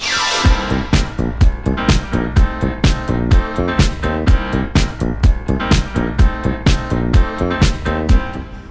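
A French pop song plays loud on the radio, driven by a steady, punchy beat with sharp percussive hits over sustained synth chords, with no voices audible.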